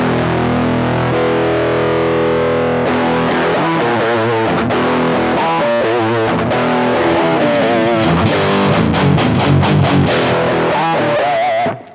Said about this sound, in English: Like learning power chords and being able to absolutely, solve, yeah. Solve Especially puzzles. when you have like distortion, you know, and you crank that that gain all the way up, and you know.